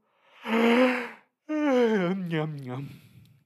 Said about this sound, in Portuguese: Mas o narrador e os irmãos dele estavam sempre cansados, bocejando. E bocejar é um quando você faz um movimento involuntário. Você primeiro abre a boca,